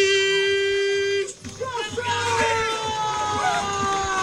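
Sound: crowd cheering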